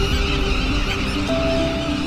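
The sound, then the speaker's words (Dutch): Black-tailed godwits, the Dutch national bird, calling: a steady, loud chorus of overlapping bird cries with a few clear tonal notes over a dense, noisy background, with no one speaking. “Want de grutto is onze nationale vogel en broedt dus graag in Noord-Holland.”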